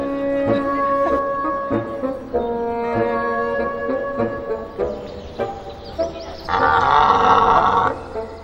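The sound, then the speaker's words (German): A deep, drawn-out red deer stag bellow repeats several times, a series of rough, roaring calls that swell louder and harsher toward the end. “wer ist der Mann vom Reh? Das ist der Hirsch dann.”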